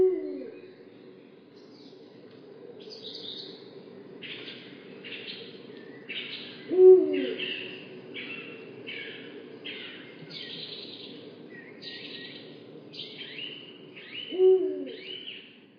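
Birds calling with no talking: three low, swooping owl-like hoots spaced several seconds apart, while a steady run of higher, chattering calls repeats faintly in the background throughout.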